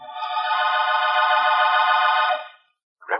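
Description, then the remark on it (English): A telephone rings as a call is placed, with one long, steady buzzing ring lasting a couple of seconds, then a brief pause before the next ring begins. It is loud, with no talking. “Then I called Rembrandt on the phone.”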